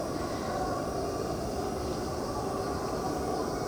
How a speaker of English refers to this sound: the sound was almost completely blended or disappearing with the sound of the planes